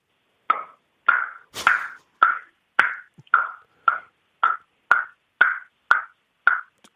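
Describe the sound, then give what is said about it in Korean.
A first-year middle school student imitates a hammer knocking on wood using only the mouth: a dozen sharp, hollow knocks in a steady, even rhythm, loud, with clear gaps between each strike. “나무를 망치로 두드리는 소리가 돼요?”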